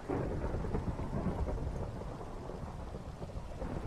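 Low, continuous thunder rumbles beneath steady rainfall, a dense wash of rain sound that stays fairly loud throughout with no voices present.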